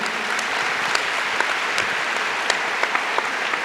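An audience claps steadily, a dense wash of many hands with a few sharper individual claps standing out, holding an even loudness for several seconds without any voices.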